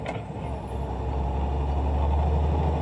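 A heavy 10-speed truck engine drones loud with a steady low rumble as the driver shifts from first gear up through the gears, barely using the clutch, without any break in sound, and no voices.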